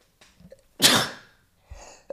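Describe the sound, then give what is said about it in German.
A single loud sneeze bursts out after a brief sharp inhale, its noisy blast fading over about half a second, followed by a faint breath. “Boah, ich muss niesen.”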